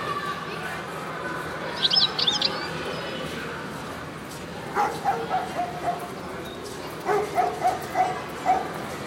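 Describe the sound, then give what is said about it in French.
A dog barks in two quick bursts of several yaps each, while a bird gives a few high chirps earlier against a steady outdoor hum. “Quels son avez-vous particulièrement remarqué dans cet enregistrement Si vous avez spécialement peur des chiens ou des chats ou des oiseaux, vous avez sans doute fait plus attention et repéré les aboiements ou les miaulements ou les chants d'oiseaux.”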